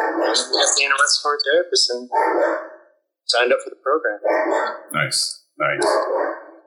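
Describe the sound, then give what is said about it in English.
A dog named Kodak barks a few times in the background while a person keeps talking in a home studio, the short barks partly buried under the voice. “I don't know if you guys can hear Kodak in the background.”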